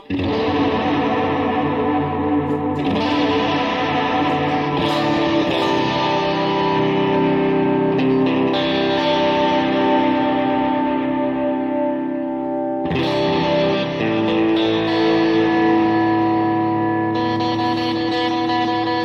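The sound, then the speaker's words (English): An electric guitar plays sustained, shimmering chords through chorus and distortion effects, steady and fairly loud, with a few brief breaks where new chords are struck, and no voices. “I need to change these strings.”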